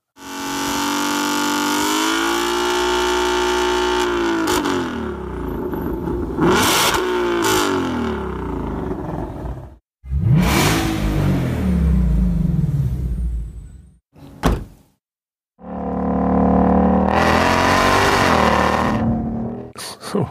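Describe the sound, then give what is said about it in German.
A loud, deep eight-cylinder car engine revs repeatedly, its throaty rumble rising and falling in pitch through several bursts with brief pauses between them, with no talking. “Achtzylinder? Würde ich auch sagen.”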